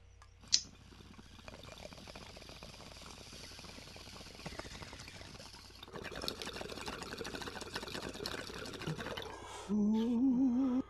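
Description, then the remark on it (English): Water bubbles and gurgles steadily in a full bong for several seconds as someone takes a hit, after a brief click at the start, swelling into a louder rising burble near the end. “I got my bong full here. I know you got a bong full there.”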